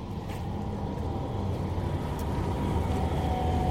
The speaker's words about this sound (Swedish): Nu åker det förbi en spårvagn igen.